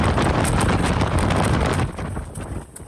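Strong gusting mountain wind on the icy trail to Sněžka in the Krkonoše mountains, Czech Republic, with gusts over 100 km/h, roars and buffets loudly, a dense rushing noise that surges for a couple of seconds before easing slightly, with no voices.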